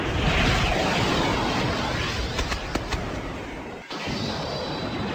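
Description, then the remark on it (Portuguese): A loud, sustained energy blast effect in the style of an anime attack, Saga firing the Galaxian Explosion at Camus and the others, roars continuously, with sharp crackling bursts partway through and a brief dip before the rumbling explosion carries on. “Saga dispara a explosão galáctica contra Camus e os outros.”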